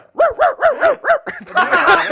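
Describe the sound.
A person imitates a dog barking: five quick, evenly spaced yaps, followed by a rougher, overlapping flurry of barking noises at the end.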